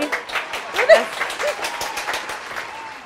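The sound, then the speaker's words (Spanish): A short burst of applause from a group of friends playing a 'never have I ever' drinking game, with dense, rapid clapping from several people that stays fairly steady, then thins slightly toward the end. Voices and laughter mix in over the claps. “no aplaudan.”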